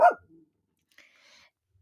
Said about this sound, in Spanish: sorry por los ladridos, pero tengo roomies que de repente pues despiertan por la noche y deciden ladrar y los tengo muy cerca y tampoco los puedo correr porque ya es noche.